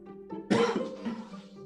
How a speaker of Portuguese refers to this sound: Só essa tosse é de falar, tá? Não fiquem preocupados comigo, não.